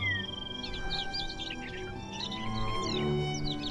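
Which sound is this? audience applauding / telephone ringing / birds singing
birds singing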